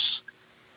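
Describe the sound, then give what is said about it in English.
A voice imitates a creaking heavy steel door with one short, shrill, high-pitched squeal, followed by a tiny faint chirp and then near silence. “creaking of a door, but not just any door, you know, like the heavy steel doors, like you hear like in a movie”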